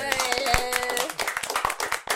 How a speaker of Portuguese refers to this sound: Eu quero agradecer de novo. Uma salva de palmas pra nós.